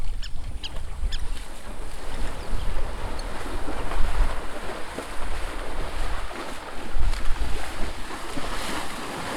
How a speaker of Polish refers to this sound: A teraz przyszły słonie i mają kąpiel. Pięć sztuk, w tym jedno mniejsze słoniątko.